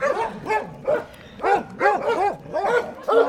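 A dog barks and yelps in a quick, uneven series of about eight high, whiny calls, fairly loud, with no talking.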